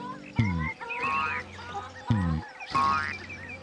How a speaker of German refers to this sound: Aus dem Hühnerstall war leises Gegacker zu hören.